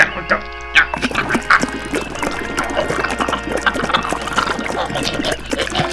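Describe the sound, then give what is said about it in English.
Green antifreeze is poured into a man's mouth while his nostrils are pinched; liquid gurgles and sputters amid choking, spluttering noises, a wet, messy burst lasting several seconds, fairly loud. “I will now pinch his nostrils, and you pour the green stuff in him.”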